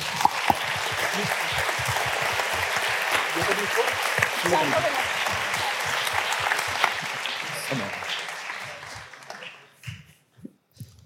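A room full of people applauds steadily for several seconds, a dense wash of clapping that thins out and fades, leaving a few scattered claps at the end.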